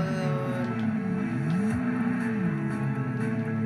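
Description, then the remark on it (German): A car engine drones steadily as it speeds up and overtakes a bus and another car, its pitch climbing and then dropping back midway through as it brakes, with a constant rumble and no voices. “Wir überholen ein Bus und noch ein anderes Auto, denn wir sind zu krass und dann bremsen wir, denn wir sind vor, schon eh vorbeigefahren.”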